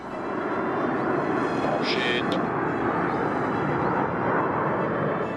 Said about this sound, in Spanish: Los Alpha Jets hacen figuras una a una.